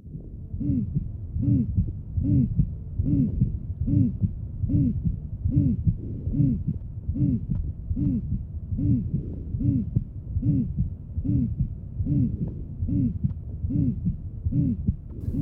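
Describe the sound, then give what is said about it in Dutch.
A musical heart murmur of severe aortic valve stenosis repeats with every beat, a steady run of high, tonal, hooting whooshes with a kind of squeak in them at a quick regular pace. It is clear, with no voices. “Dit geruis is pathognomonisch, dus kenmerkend voor een hele ernstige aortaklepstenose dan wordt het wat muzikaal.”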